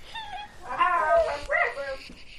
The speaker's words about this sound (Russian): А она гавкает, она нас кусит.